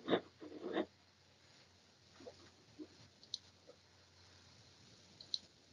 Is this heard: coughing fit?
no